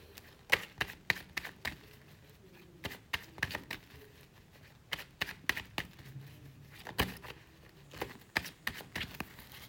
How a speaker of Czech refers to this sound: A já už se dívám na vaši fotku, míchám u toho karty.